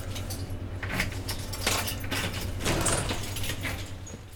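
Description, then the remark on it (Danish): A bunch of keys jingles and clinks in short, irregular bursts as someone searches for the right key, with a low steady hum underneath and no one speaking. “Se, skal jeg finde rigtig nøgler.”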